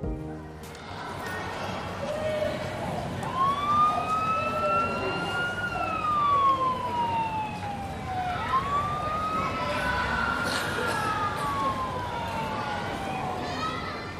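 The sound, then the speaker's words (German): An ambulance siren wails in long rising and falling sweeps over a steady bed of street and traffic noise. “Vielleicht habe ich sogar einen Krankenwagen gehört.”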